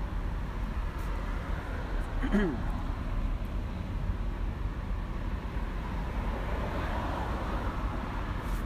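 Steady outdoor road noise, a continuous low rumble of cars going by, with a brief high sparrow chirp cutting through about a quarter of the way in.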